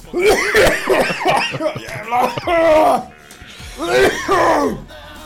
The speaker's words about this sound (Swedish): Ja, jag satt i halsen.